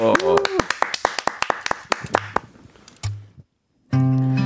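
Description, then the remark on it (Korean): Audience clapping in a loud, sharp, steady rhythm to call for a song performance, with a voice briefly over the start. The claps thin out after a couple of seconds, then a short silence gives way to music. “자, 우리 조영수 씨하고 저하고 박수로 청해 듣겠습니다. 박수!”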